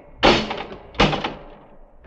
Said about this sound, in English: The doors, Dudley. Uh, They're closed.